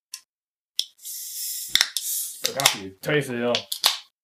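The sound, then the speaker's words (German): A sharp metallic crack as an aluminium drink can is opened, followed by a short burst of fizzing hiss, then people talk. “Lass uns den, lass uns den Alukörper öffnen.”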